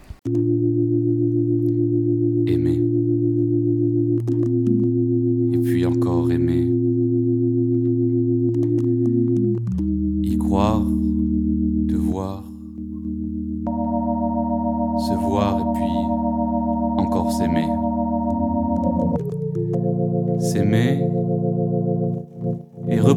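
A song by a French band with steady, droning synthesizer chords that shift every few seconds, a wavering sung voice drifting over the top, and occasional sharp percussive hits, played loud throughout.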